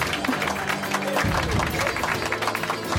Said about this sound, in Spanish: Estamos, sí, un aplauso